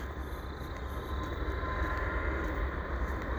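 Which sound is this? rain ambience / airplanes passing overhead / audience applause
airplanes passing overhead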